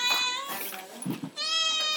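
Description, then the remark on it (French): A cat meows loudly, two long, drawn-out calls separated by a brief low rustle, with no one talking. “il y a que euh, le chat continue à foutre son nom.”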